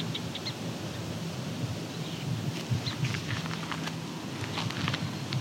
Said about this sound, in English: There's a Savannah Sparrow very close to me.